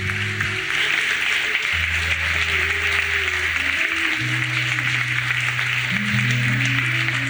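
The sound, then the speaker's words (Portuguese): A church audience in Belo Horizonte applauds God steadily for several seconds, a dense, continuous wash of applause, while sustained low keyboard notes hold and shift pitch underneath. No one speaks. “Aleluia, aplaude Ele.”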